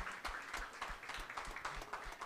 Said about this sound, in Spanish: Amén y amén. Dale un aplauso fuerte al Señor, iglesia.